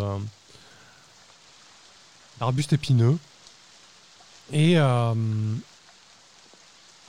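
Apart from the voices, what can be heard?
steady rain falling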